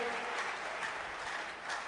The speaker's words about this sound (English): Give the Lord a mighty clap